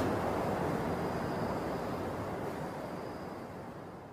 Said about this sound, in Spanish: si acaso su mente se distrae y se ponen a pensar en otros asuntos y se olvidan del río que suena, entonces se dan cuenta de ello, de que están divagando, pensando en otra cosa, y entonces rompen ese estado y regresan a escuchar el río que suena.